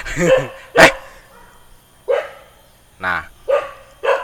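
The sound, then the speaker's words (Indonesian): A wild dog in a forest barks about five times in short, sharp bursts spaced unevenly across a few seconds, loud, with a person laughing and murmuring briefly at the start. “kenapa ada anjing yang gonggong”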